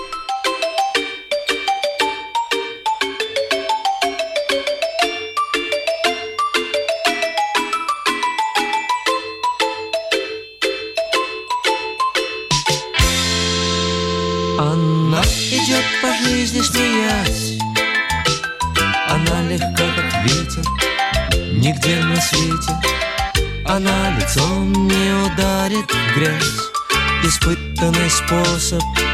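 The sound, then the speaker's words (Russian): A bright, tinkling melodic intro plays alone for several seconds, then a sweeping transition launches into a full, loud pop arrangement with a steady driving beat, played as a musical break in the radio program WhatsApp Strana. “А через небольшую музыкальную паузу мы продолжим программу WhatsApp страна.”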